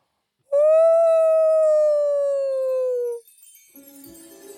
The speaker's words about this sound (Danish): Reven løftede hovedet mod himlen og hylede som en ulv.